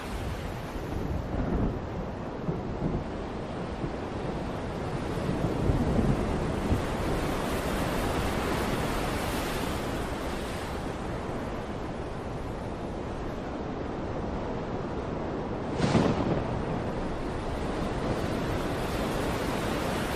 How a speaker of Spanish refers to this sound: Entonces una ola entra en el barco, el viento empieza a mover la barca derecha, izquierda, derecha, izquierda, el viento cada vez sopla con más fuerza.